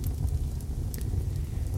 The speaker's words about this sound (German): Ein alter Indianer saß mit seinem Enkelsohn nämlich am Lagerfeuer. Die Nacht hatte sich über das Land gesenkt und das Feuer knackte und krachte, während die Flammen hoch hinaus in den Himmel züngelten.